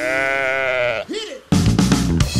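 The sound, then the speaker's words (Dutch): A single long, wavering sheep bleat sounds loud, trailing off into a brief falling cry before music abruptly starts. “Vandaag gaat het over schapen.”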